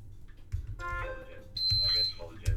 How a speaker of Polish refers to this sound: Czy to, że zaczęło ci coś w tym momencie piszczeć, jest nie, to zegar.